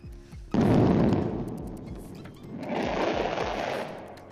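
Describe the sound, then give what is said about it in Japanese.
Fireworks crackle in two dense bursts, a rapid flurry of sharp pops and sizzling snaps that fades, then swells again, fairly loud with a rumbling tail and no voices. “あでもこれ多分花火だよねおそらくね何かがバチバチって感じになってるから余韻がね花火かなと思うんですけど実際どうなんでしょうか”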